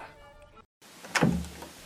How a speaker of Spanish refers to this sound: La gente Hernández tocó la puerta del despacho de la hacienda